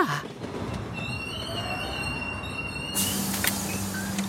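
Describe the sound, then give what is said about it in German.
A train rolls slowly to a halt, its wheels letting out a steady high-pitched squeal over a broad rumble, then a low hum takes over as it stops. No one speaks. “Ja, jetzt ist der Zug schon ganz langsam. Die Türen gehen gleich auf.”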